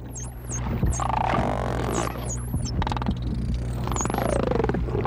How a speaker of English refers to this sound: So Elvar spent a lot of time uh, seemingly chatting back and forth with this other dolphin named Chi Chi. Sound a little bit like this.